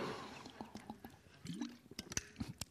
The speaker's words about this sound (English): I'm just going to sip my water. Don't anybody look.